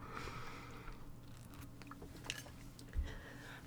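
Quiet mouth sounds of someone sipping water and swallowing, with small wet clicks and a slightly louder gulp near the end. No talking.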